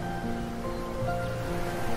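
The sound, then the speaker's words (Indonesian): A steady, unbroken roar of ocean waves on a shoreline mixed with strong wind blowing from the sea onto the land, moderately loud and continuous throughout, with a faint tonal hum underneath and no voices. “Suara ombak berbunyi, senada dengan angin bertiup kencang dari laut ke darat.”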